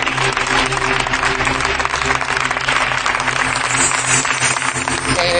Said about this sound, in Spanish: Estáis aplaudiendo no, más de lo necesario. No. Retardáis mucho la sección y tengo poco tiempo.